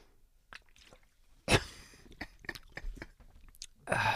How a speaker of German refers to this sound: Mhm, warte mal, ich muss kurz was trinken.